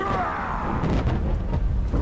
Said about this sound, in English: The sound of his impact echoes across the ship.